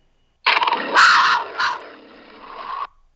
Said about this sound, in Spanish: ¿Cuáles son? los Panthers. Esa es una pantera rugiendo por cualquier cosa.